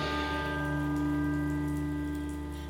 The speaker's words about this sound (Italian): non smette mai. Non smette mai la pioggia. La pioggia pulisce, dice Ariel, ma pulisce cosa? A me sembra soltanto che entri nelle ossa fino a gonfiarle e poi...